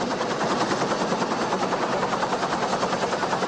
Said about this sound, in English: He's got a lot of bees on him, so he is being lifted up now from the helicopter. Oddly enough, the bees are not being blown around.